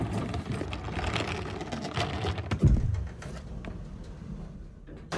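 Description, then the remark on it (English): A dull thud of an elevator door sliding shut, followed by the steady low hum of the motor running underneath a faint mechanical rattle. “Let's go, Herman, quickly! The elevator!”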